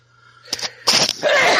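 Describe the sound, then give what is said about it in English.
A rapid, loud burst of sneezes: a couple of quick short bursts followed by a bigger, drawn-out explosive sneeze, with no talking. “Uh, that was a sneeze attack.”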